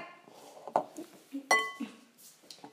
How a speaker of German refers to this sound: Ihr hört jetzt gerade nur die Schüssel.